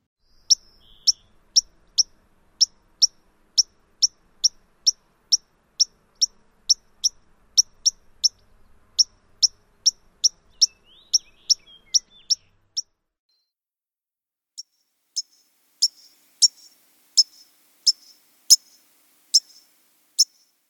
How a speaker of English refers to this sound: White crowned sparrows can have 10 different call notes. The most frequently heard includes a sharp pink